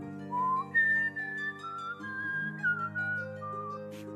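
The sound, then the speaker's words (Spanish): A figure walking among people whistles a slow, wavering tune for several seconds, still far away, the notes gliding up and down over a steady low droning hum in the background. “Parece estar silbando y parece ser de quien viene el silbido.”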